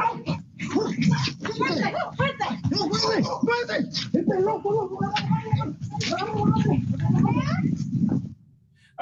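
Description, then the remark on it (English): A chorus of dogs yipping to protect a house as a bear and her two cubs approach, many shrill overlapping yelps and whines tumbling over one another for about eight seconds, loud, before cutting off abruptly. “I'm sorry, you heard the dogs first. They yipping, they they recognize they're trying to protect their, their their person's house.”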